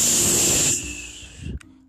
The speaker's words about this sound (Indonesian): Ketika Rosid tidur, ternyata badai datang. Guntur bergemuruh, kilat sambar menyambar, angin wush,